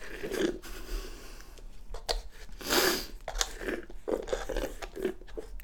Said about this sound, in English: Now I'm chewing plain ice. This is certainly the end game here, folks.